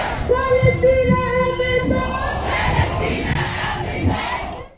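A large demonstration crowd in Nørrebro on a Friday evening chants the slogan "Palestine is occupied, it must be solved with jihad" in unison, many voices shouting together in a rhythmic, sustained call. Loud and dense, with a strong harmonic voiced chant for the first couple of seconds, then continuing crowd shouting.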